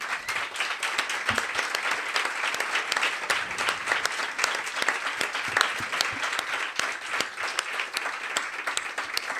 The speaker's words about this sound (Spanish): Así que por ahí este aplauso que yo creo que es más que merecido.